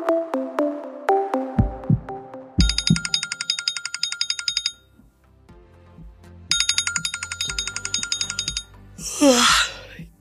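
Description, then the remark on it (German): An alarm clock rings loudly in two rapid, metallic bursts of about two seconds each, set over a bouncy plucked melody, followed by a brief whooshing sweep at the end. “Der Wecker klingelt, der Tag ruft, doch man fühlt sich gerädert und alles andere als ausgeschlafen.”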